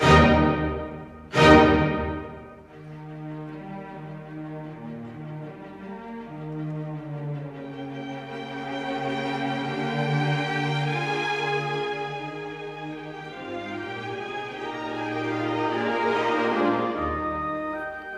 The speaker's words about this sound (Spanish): el maravilloso compositor Ludwig van Beethoven estrenaba su tercera sinfonía, que suena así de bonita.